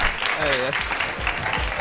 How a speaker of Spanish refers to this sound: Y nada, pedir un, un, aplauso para vuestros compañeros que están aquí arriba, ¿no?